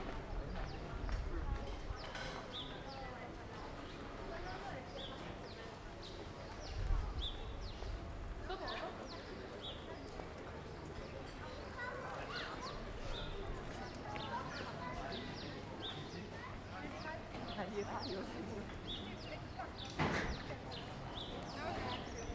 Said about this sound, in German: Bleiben wir hier an der Kreuzung stehen, oder? hören wir ein bisschen rein hier.